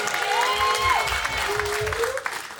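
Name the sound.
crowd applause and cheering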